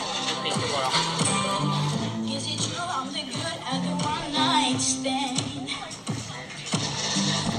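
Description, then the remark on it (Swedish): A recorded YouTube clip of a teenage boy singing a melodic tune while standing in his school cafeteria, over steady low backing notes, loud and continuous throughout, with faint crowd murmur and shuffling behind it. “Det här det första klippet han la ut, eller bland det första, är ju när han bara står i skolan eh, i, ja, typ i matsalen och sjunger.”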